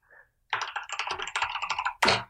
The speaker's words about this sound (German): Und deine ultra laute Tastatur.